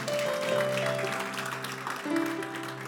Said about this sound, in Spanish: ¿Cuántos dicen amén? ¿Cuántos se alegran por eso? Denle un aplauso fuerte al Señor porque Él es bueno.